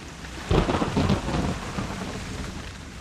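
Rain pours steadily as a deep rumble of thunder rolls in, peaking early and then fading into a low, continuous storm roar with no voices.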